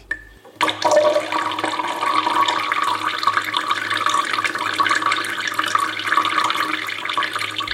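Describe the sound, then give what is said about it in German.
A dog urinating into a plant pot: a steady, hissing stream of liquid splashes continuously for about seven seconds, fairly loud, with no voices. “oh, schau mal, ein Hund. So ein kleiner Racker. Der wird doch nicht.”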